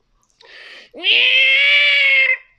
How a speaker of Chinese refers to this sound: 对啦，说到猫，要比叫声，你的叫声很奇怪，咪咪叫，哈哈哈哈哈。